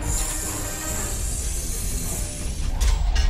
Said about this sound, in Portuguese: Quando a nave pousou e abriu a porta traseira,